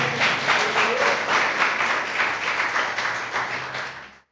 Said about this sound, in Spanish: Apláudanle a su Dios, a nuestro Dios.